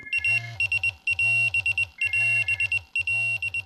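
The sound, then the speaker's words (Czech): An ambulance crew dispatch alarm tone sounds loud, mobilizing an emergency medical crew to drive out: an electronic pattern of a steady high tone over rapid pulsing beeps, repeating four times in quick succession with no voices. “To je přesně zvuk, který mobilizuje jednotku k vjezdu.”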